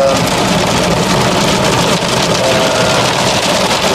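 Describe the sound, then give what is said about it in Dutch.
A car wash runs steadily, with a dense, loud wash of spraying hiss over a low mechanical rumble and hum, continuous for the whole stretch, with no voices. “ik had de tip, als je nou korter dan één uur in de trein zit, ja. dan kan je de wasstraat ook versneld afspelen.”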